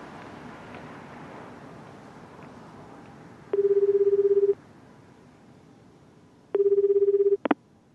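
Over a low background hiss, a telephone ringing tone from a call placed at night sounds twice, steady buzzy beeps with a pause between them, followed by a quick double click as the line connects.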